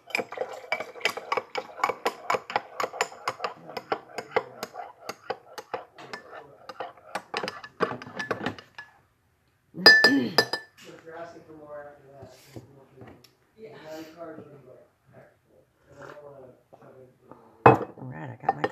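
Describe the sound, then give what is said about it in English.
Ceramic dishes and a coffee cup clink repeatedly in quick, bright bursts as someone grabs their coffee, then go quiet; a voice speaks afterward, with one more sharp clatter near the end. “Well, I'm going to grab my coffee real quick.”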